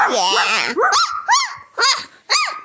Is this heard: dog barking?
yes